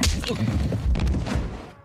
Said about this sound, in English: I will disagree. That was a punch, never a slap. But did you see the difference or hear the difference?